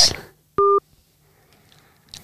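A phone number being dialed: one short, loud two-tone keypad beep sounds, steady and clear, between quieter rustling and faint background noise.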